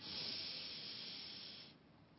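A person takes a long, deep breath in, an airy hiss that holds steady for well over a second before tapering off. Soft, with no talking.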